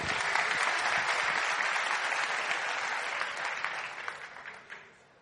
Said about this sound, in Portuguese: Palmas para ele.